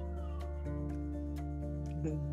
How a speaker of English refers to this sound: Uh, can you hear baby crying?